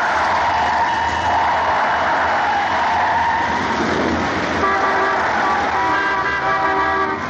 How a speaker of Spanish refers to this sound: De repente el conductor da un fuerte volantazo girando 180 grados.